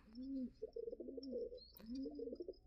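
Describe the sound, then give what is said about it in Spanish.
A pigeon coos in soft, low, rolling phrases, repeating three times with a brief throaty pause between, over a quiet background with a faint high whine. “Eh, escuchamos a una paloma, ¿están de acuerdo?”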